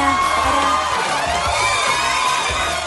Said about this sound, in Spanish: Fuerte el aplauso para... para,